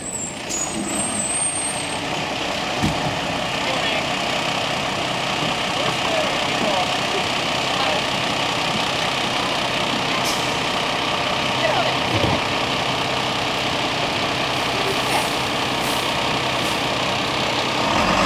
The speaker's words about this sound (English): Here it comes, Andrew. Here's your bus.